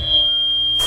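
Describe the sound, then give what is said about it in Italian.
A piercing, steady high-pitched audio feedback (Larsen effect) squeal rings out loud and sustained, holding one shrill tone with a faint low hum beneath, then breaks into a burst of noise at the end. “Ve ne metto uno fastidiosissimo, Vai.”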